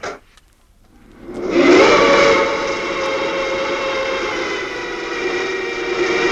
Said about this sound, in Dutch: Begin maar met pompen.